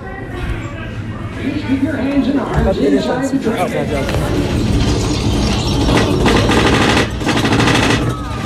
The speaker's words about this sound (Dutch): Het was echt heel mooi. Mooi vuurwerk. Vuurwerk was heel mooi.